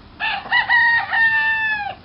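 A single rooster crows loudly, one long cock-a-doodle-doo that breaks into a few quick syllables before holding a sustained, slightly falling final note, with no talking.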